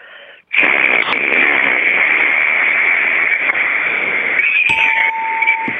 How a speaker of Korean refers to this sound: 네, 애초기 소리입니다.